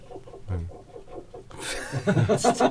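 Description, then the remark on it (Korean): An air conditioner drain pump gurgles and sputters as it pushes water out, a bubbly, irregular rush that starts abruptly after a brief soft murmur. “네, 에어컨 왜 이러냐? 아 이거 저 지금 지금 펌프 물 물 빼내는 물 거다.”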